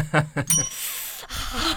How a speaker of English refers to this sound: when the bell rings, and the audience they also looking forward to it